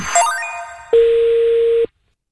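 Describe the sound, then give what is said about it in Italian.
A quick rising run of electronic tones gives way to one steady, clear telephone ringing tone lasting about a second, heard alone before cutting off, as a truck driver phones a motorway service station in Cantalupo. “La telefonata del camionista Bismarck 28 all'autogrill di Cantalupo”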